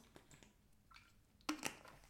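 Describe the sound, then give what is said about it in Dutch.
A quiet sip of water: faint wet mouth noises, then a couple of soft gulping clicks near the end, with no talking. “Pardon, even een slokje water.”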